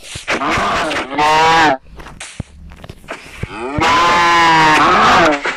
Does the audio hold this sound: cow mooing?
yes